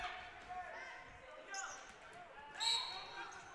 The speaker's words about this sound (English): And ball bounced out of bounds.